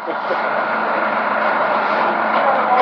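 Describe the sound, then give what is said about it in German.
A steady, fairly loud mechanical drone of a suspended railway car's motor running while the car hangs in the station from rails about 1.5 metres up, a continuous broad hum with a faint rattle that holds at an even level throughout. “Wir hören auch schon in diesem Motor und das Ding hängt jetzt.”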